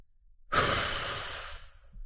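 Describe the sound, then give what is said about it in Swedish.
A sudden, forceful breath out that empties the lungs bursts in after a half-second of silence and rushes on steadily for over a second before tapering off, breathy with no talking. “tömmer jag mm. mina lungor. Så att jag andas ut över hoppet.”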